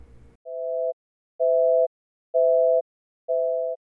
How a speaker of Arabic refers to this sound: بالضبط زي لما نتصل على رقم هاتف بشكل مستمر رقم الهاتف هذا حيظل مشغول وما يقدر يستلم أي طلبات اتصال أخرى